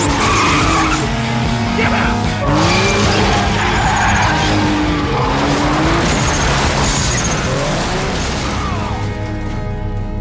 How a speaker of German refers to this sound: Sie rasen unter infernalem Motorenlärm über den Kudamm.